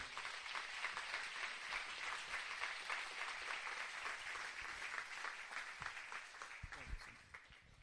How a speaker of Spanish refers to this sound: Vamos a darle un fuerte aplauso al Señor por ello.